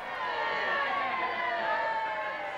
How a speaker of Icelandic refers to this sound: hún kemur síðan út og, og það er greinlega mikið mann hérna hróp og, og læti þegar hún kemur út því að hún er að veifa mannfjöldanum þegar hún ja. gengur út um, um tröppunar á Hotel Kea og, og fer upp í bílinn.